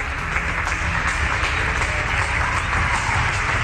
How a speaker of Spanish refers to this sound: Así se está aplaudiendo en todo el país como reconocimiento al trabajo de todo el sistema de salud.